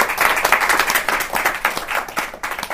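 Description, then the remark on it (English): A steady round of applause from a group, dense overlapping hand claps sustained for a few seconds at a fairly loud, even level with no talking. “Well, everybody, um, just real quickly, we say, we want to uh, give a huge round of applause to Entertainment Solutions of Northern Kentucky.”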